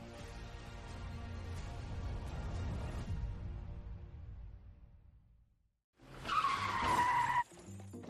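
A vehicle's engine rumbles and fades, then after a brief pause a loud tire screech shrieks for about a second before cutting off abruptly, ending in a collision with a truck.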